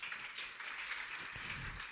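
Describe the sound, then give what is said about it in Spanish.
A crowd at a Spanish-language religious sermon gives loud applause to the king (God), a dense, steady wash of clapping that holds evenly for the full two seconds, with no voices over it and a faint low rumble toward the end. “Dale un aplauso fuerte al rey por eso.”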